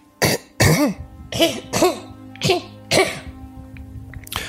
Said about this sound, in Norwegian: Håper ikke dere våknet at jeg hostet litt.